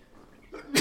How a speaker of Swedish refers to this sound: Och eh, prosit.